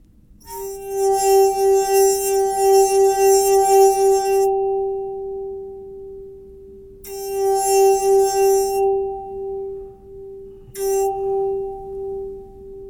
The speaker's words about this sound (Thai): อันนี้คือเสียงจากพินแก้ว ซึ่งเป็นแก้วคริสตัลอย่างดีนะครับใบที่เป็นโน้ตตัวซอนที่หายากที่สุด แล้วซึ่งแตกไปแล้วเนี่ยนะครับ ลองมาฟังเสียงดูครับ